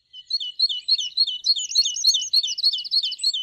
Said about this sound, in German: Eine Amsel zwitschert fröhlich vor sich hin.